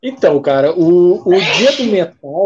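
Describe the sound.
A man talks steadily, and midway a single short, breathy sneeze bursts out, overlapping his speech before he carries on.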